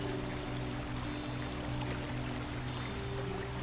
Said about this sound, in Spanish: Quiero que imagines la cascada azul